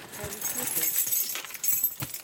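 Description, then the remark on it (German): Keys jingle and clink, followed by the scrape and click of a key working in a door lock at a tennis hall used as a filming location, a short burst of metallic rattling and taps. “Passt der Schlüssel? Ja, er passt, Gott sei Dank.”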